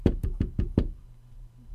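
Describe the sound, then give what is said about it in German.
Five quick, dull taps in a steady rhythm, like knuckles or a finger knocking on a book cover, each one sharp and low, then the sound stops and only faint background hum remains. “Ähm, er äh, tippt mehrfach auf das Buch.”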